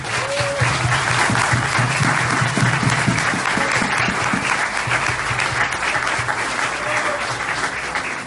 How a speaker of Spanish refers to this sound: Así que les pido un fuerte aplauso para todas estas personas.